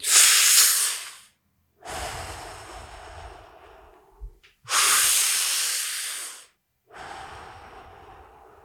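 Slow, deep breaths deliberately drawn in and pushed out through the mouth, four long airy strokes alternating in and out with brief pauses between, clearly audible with no talking; a person demonstrating a breathing exercise, filling the chest from the belly and exhaling relaxed.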